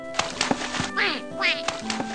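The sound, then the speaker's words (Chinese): A group of little ma ducklings (麻鸭) on a shallow bank beside a stream quacking in quick, nasal bursts, several short calls scattered across the moment with a couple of longer, rising squawks in between. “只见一群小麻鸭。停在小溪旁的浅滩上”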